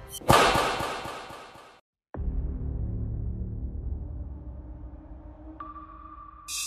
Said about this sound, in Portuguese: Ele balança o chicote assim, tipo.